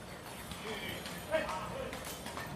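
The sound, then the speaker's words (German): Hooves of a red wooden horse-drawn carriage driven by two men clip-clop at a slow, uneven pace on pavement in the town of Ronda, fairly faint, over steady outdoor street noise with indistinct voices nearby. “Das ist eine Pferdekutsche mit einem roten Kutsche, das ist Holzkutsche, da steht Cruz Campo, das ist, glaube Bier drauf und äh, mit zwei Männern, die äh, Beret und schwarzen Hosen, weißes Hemd und Schürze,”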